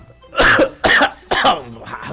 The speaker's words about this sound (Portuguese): mas não precisa tossir no ar